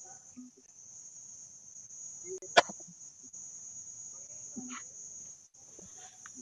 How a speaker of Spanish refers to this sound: nos está acompañando con, el sonido de, las cigarras